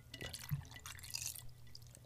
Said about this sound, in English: Ah, yeah, sweet, sweet margarita. I would almost have preferred a little bit more of the glug glug glug coming out, but the the shaker just makes it so smooth.